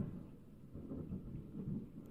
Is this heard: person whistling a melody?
no